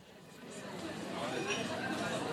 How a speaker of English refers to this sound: Now, let me set the scene for you. You can hear the glasses clinking and the people having conversations in the background.